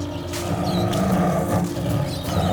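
animal, tigers roaring

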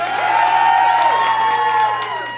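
crowd, audience applause and cheering

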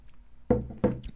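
food or drink, sipping tea

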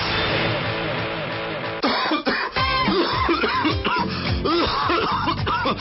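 human body sound, coughing

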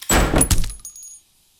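household object, door opening

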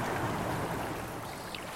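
nature, flowing creek water

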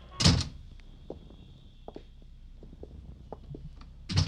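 household object, door being closed

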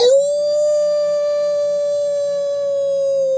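sound effect, wolf howl

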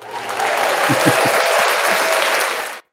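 crowd, inserted applause sound effect

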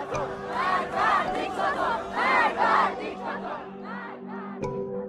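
crowd, protest crowd chanting slogans

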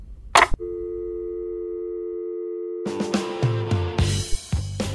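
signal or alarm, telephone busy tone

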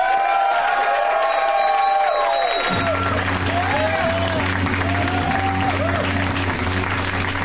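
crowd, audience applause and cheering

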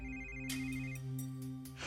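signal or alarm, phone ringtone ringing

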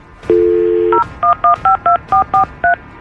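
signal or alarm, telephone number being dialed

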